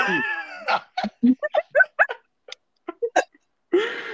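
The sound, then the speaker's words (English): A cat meows, with a drawn-out meow at the start and another at the end, separated by a quick series of short, clipped chirping sounds. “Cat, okay, okay.”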